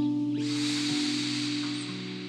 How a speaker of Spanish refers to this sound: Vuelve a inhalar ahora con conciencia y sigue observando. Y exhala con atención. Y sigue soltando. De esta forma, nos regalamos una respiración consciente.